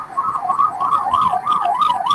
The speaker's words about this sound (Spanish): Eh, eh, ya, nos, vienen a buscarnos, por ahí con una sirena.